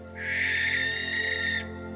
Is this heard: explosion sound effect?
no